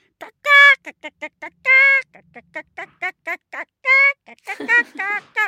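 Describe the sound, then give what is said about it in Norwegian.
A human voice imitates a pet hen that crows like a rooster very early in the morning, with several loud, drawn-out calls broken up by rapid, choppy clucking bursts, with no other sounds. “Men en av hønene våre er litt sånn haneaktig eh, i dag. Innimellom så våkner jeg veldig tidlig på morgenen av at hun bare”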